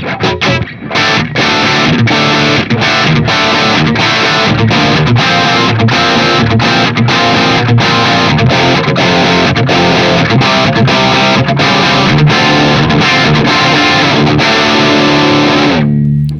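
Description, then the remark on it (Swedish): A loud, heavily distorted electric guitar plays a steady chugging riff through a JCM 800 amplifier, recorded with a Shure microphone, dense and saturated throughout, with rhythmic gaps between chords before ringing out at the end. “Och här kommer också mickarna var för sig. Så här låter Shure-micken.”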